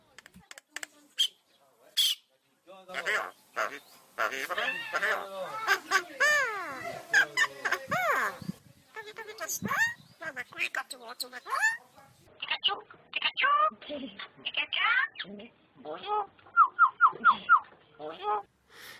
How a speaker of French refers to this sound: Euh, donc l'oiseau en question est un martin triste qui est proche du ménat euh, qu'on appelle aussi le merle des Indes, et il est capable de vocalisation.